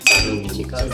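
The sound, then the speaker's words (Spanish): A single bright clink of glasses touching in a toast, ringing briefly, with faint low murmuring and background noise continuing afterward. “Salud a ustedes.”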